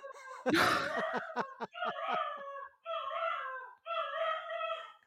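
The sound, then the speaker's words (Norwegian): A dog bursts into sharp yelps, then settles into three long, wavering howls in a row, loud, howling along with the siren of a fire truck driving past. “Så da skal Siko hjelpe hele blokka oh, med å ule.”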